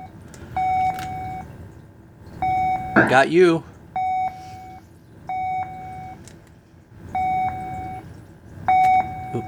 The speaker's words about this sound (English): I like you got the radar sounds going uh, throughout the game. It adds a little ambiance.